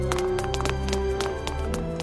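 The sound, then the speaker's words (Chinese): Rapid running footsteps from two people in an alley, a quick, uneven patter of sharp thuds that overlap and blur together, with a low steady hum underneath. “寂静的巷子响起一阵雷雨般的脚步声，可那是两个人的脚步声。”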